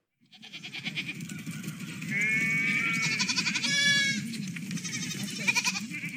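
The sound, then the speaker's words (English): A sheep bleats several times in quick, wavering cries that swell and fade over a steady low rumbling background, with no talking. “No sheep were harmed in the recording of this podcast.”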